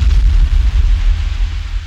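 A loud explosion sound effect: a deep, booming blast that rolls into a heavy, sustained rumble for a couple of seconds, with no voices over it.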